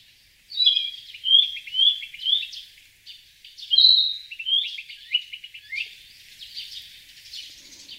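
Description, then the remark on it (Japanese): A narcissus flycatcher, a summer migrant just arrived at Rikugien garden in Japan, sings the song pattern heard across Honshu: bright, whistled phrases repeated in quick succession, then a softer, rambling warble, clear with no other sounds around it. “このキビタキの鳴き声は「本州の各地で聞くさえずりのパターンです”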